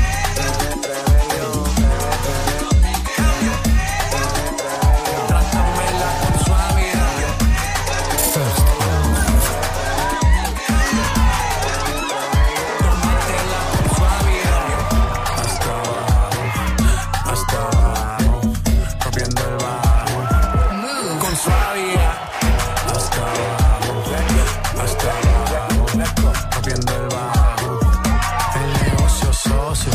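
A reggaeton track plays loudly and continuously, driven by a steady, thumping bass beat with layered melody and sung vocals throughout.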